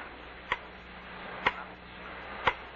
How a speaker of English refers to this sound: that clock, Charlie going to drive me up the wall. Oh, come on now. It's only a clock. Grandfather clock. It never stops.